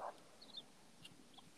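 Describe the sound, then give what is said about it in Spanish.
Faint, high little bird chirps come through sparsely in the background, a few brief tweets scattered over a quiet background hiss with no one talking. “Sí, escuchan unos pajaritos de fondo de alguien.”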